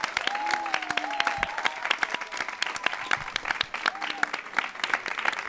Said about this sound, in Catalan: Si us ho heu passat bé, feu un aplaudiment o alguna cosa, no? que quedava bé.